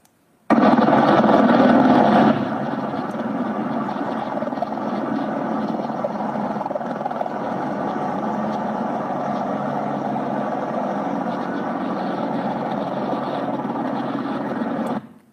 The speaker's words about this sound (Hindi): आज काफ़ी जो लोग यहाँ पर गर्रा रहे हैं तो लोगों को हटाने के लिए अपाचे हेलीकॉप्टर्स तक को लगाना पड़ा ज़रा देखिए